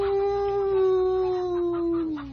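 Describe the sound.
A person imitates a coyote howl: one long, steady, loud wavering tone held for about two seconds, then sliding downward in pitch as it fades at the end.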